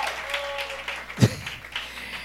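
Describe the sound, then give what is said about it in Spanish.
An audience applauds together, a steady wash of clapping, with one dull low thump partway through; no one speaks. The applause celebrates a water purification project in Cotuí. “Un aplauso. Va a proveer un aplauso fuerte.”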